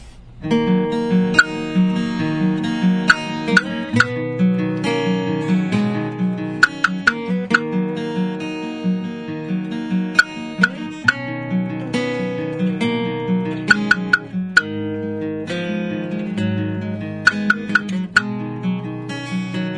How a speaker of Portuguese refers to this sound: A gente vai tocar um som chamado ….